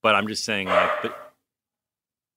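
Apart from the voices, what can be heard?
dog barking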